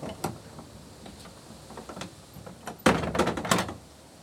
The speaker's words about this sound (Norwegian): Men nå skal vi gå inn der går den store nøkkelen opp ned, inn i låsen. Originalen henger inne.